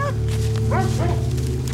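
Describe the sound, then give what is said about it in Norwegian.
Wolf-like dogs bark and snarl in a few short, sharp bursts on the bank of icy water at night, set against a steady low droning rumble that runs underneath the whole time. “På bredden yrer det av våpenkledde menn og ulvelignende beist snerrer.”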